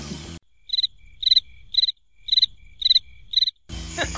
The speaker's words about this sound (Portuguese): Aí produção põe um grilo aí depois para nós.